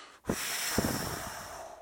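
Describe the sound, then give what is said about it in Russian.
A long, forceful breath pushed out through the mouth to empty the lungs fully after 35 rapid mouth breaths in a breathing exercise, steady with a broad airy hiss that holds for well over a second after a brief start, no talking. “Как только я досчитал до 35, то есть там я полностью выдыхаю кислород из себя, какой могу найти, вот так вот,”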